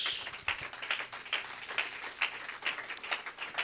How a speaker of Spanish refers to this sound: Dele un pie, un aplauso al bendito amor de Dios.